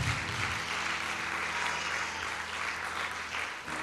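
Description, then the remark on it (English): Sustained applause from a crowd for the Lord, a dense steady clatter of many hands clapping at once, loud and even throughout with a faint low hum underneath. “But yeah, you can give the Lord a great round of applause today.”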